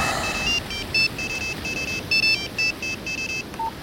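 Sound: mobile phone ringtone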